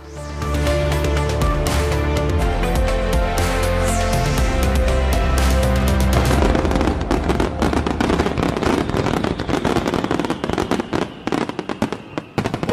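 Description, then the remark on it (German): Fireworks going off nonstop in the background on New Year's Eve, 31 December 2023, a dense barrage of overlapping booms and bangs that turns into thick, rapid crackling in the second half, loud and continuous with no voices. “Im Hintergrund knallt nämlich schon das Feuerwerk.”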